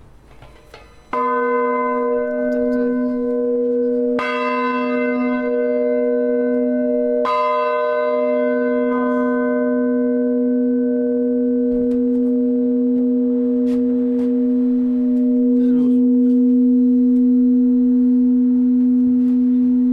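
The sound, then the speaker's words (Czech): A large church bell in a belfry, recently repaired and put back up, rings, struck three times in slow succession with a strong attack, its deep resonant hum sustaining and blending between strikes with no voices present. “tam ho vlastně opravili a dávali ho zpátky nahoru na zvonici.”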